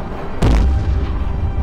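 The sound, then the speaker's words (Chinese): A single shell fired from the Retford's rapid-fire gun at a drone: a sudden sharp blast, then a deep booming rumble that slowly fades under a steady low hum. No voices are heard. “话音刚落，第二发炮弹也已经出膛，耀眼的白光直逼自由无人机，将它的几根枝节炸成了碎片。”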